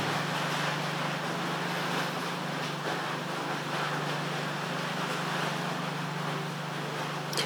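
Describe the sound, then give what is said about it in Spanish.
A sudden, unexpected heavy rain shower pours down on a small country plot in Yauco, a steady, dense hiss across the whole clip, loud and unbroken, with a low constant hum beneath it and no voices. “yo creo que está cayendo un sendo aguacero de la nada en mi campito en Yauco.”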